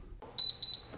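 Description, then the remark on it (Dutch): A rapid string of four high, thin electronic beeps in quick succession from a Xiaomi Tau T1 smart trash bin, bright and clear against a quiet background with no talking. “Nee, we hoorden een slimme prullenbak, want die bestaan ook.”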